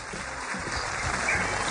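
A steady wash of audience applause welcoming a guest on the show Bla Bla Blue, dense crackling claps blending into a continuous hiss at a moderate, even level for under two seconds, with no voices over it.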